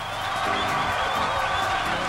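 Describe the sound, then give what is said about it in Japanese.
A dense, steady wash of crowd applause and cheering from a sound-effect app, continuous and loud for two seconds with scattered whoops and no clear individual claps. “一応拍手のアプリお届けしております。”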